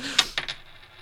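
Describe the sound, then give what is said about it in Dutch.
A 2 euro coin is tossed and lands with a sharp metallic clink, followed by a couple of quick bounces and a faint ringing settle, fairly quiet, with no talking. “dat deze 2 euro munt zwaarder is aan de ene kant oh, ja, dan aan de andere kant.”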